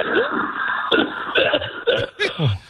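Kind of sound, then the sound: human body sound, heavy coughing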